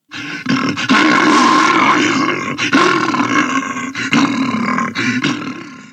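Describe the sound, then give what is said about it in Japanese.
A bear growls, a loud, rough, rumbling roar that runs in several long sustained bursts with brief breaks between them. No one speaks over it. “このニュース同じ熊としてどうご覧になりましたか”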